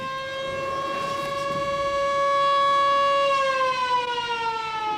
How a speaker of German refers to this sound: In diesem Moment ertönte ein ohrenbetäubendes Sirenengeheul und alle Arbeiterinnen in der Fabrik erstarrten.